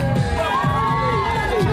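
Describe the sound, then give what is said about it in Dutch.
A crowd of fans cheering wildly as Wesley Snipes waves to them, a dense, loud wash of overlapping shouts and high whoops with rising and falling yells sustained throughout. “Zwaai naar het publiek wat helemaal uit zijn bol gaat.”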